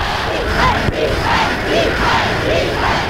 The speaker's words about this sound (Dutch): ja, groot gejuich voor Hitler 83 jaar geleden in Wenen.